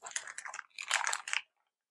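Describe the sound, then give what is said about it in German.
Crinkly rustling made by the speaker comes in two irregular bursts of crackling noise with a short pause between them, then fades into silence. “Ich rascheliere ein ah, bisschen, Entschuldigung.”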